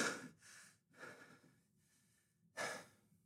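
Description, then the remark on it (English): A voice imitates heavy breathing, with several loud, breathy exhales and inhales in an uneven rhythm, with no speech. “just breathing heavy.”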